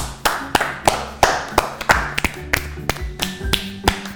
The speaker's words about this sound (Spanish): Muchas gracias a los cuatro y estoy muy contento de haber aquí. un aplauso.